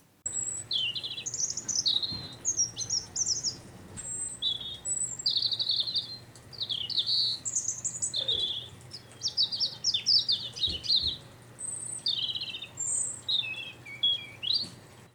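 A robin sings a continuous run of high, warbling phrases, each brief and varied, with short pauses between them. The song is clear over a low, steady background hum.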